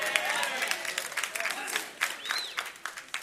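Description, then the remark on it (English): An audience claps in a church, a dense, steady patter of many hands throughout, with faint voices and a brief high whoop mixed into the applause. “You know, not everybody is clapping in this church.”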